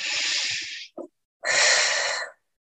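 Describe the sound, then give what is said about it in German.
Two long, breathy airy rushes during a guided breathing exercise: a deep inhalation followed by a brief pause and another sustained breath out through the mouth, with no talking. “Aber jetzt in diesem Moment kannst du einfach deine Hand auf dein Herz legen und kurz hineinfühlen, vielleicht ganz tief einatmen.”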